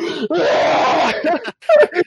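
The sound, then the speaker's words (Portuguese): A voice imitates a frightened scream at finding a giant spider beside their hand: a loud, strained cry held for about a second, followed by a short pause and some further breathy, groaning vocal sounds. “Teus pais, tipo, acordaram com tu gritando.”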